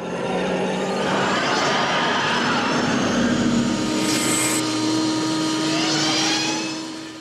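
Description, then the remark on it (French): A Porsche 928 V8 engine roars loudly and steadily for several seconds, its throaty drone shifting in pitch slightly before easing off at the end, with no voices; used as the sound double for a DMC car's V6. “La doublure son est tout bonnement le V8 d'une Porsche 928.”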